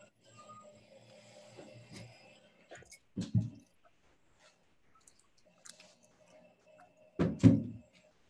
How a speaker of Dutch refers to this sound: Ik maak heel even het raam dicht hoor,